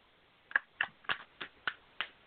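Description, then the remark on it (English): Six sharp tongue clicks pop out at a steady, slightly uneven pace, made with the mouth by three people imitating the clicking noise of the girl from the film Hereditary, crisp, with no talking around them. “three of us anyway. are making that clicking noise, but none of us can remember exactly her name.”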